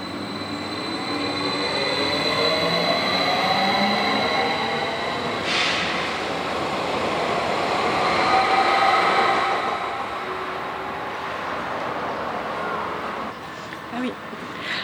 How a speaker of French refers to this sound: Ce train continue sans arrêt jusqu'à Vevey.